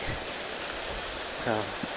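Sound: waterfall rushing water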